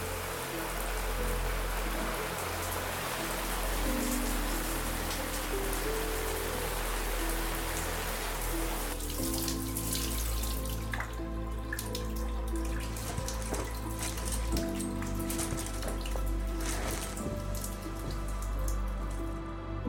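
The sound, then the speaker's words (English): Water from a shower pours steadily, a continuous hiss of spray splashing onto a hard surface, with a slight shift in tone partway through and no voices. “After taking a shower, an activity that was becoming more and more infrequent, Alex went downstairs into the kitchen to get something to eat.”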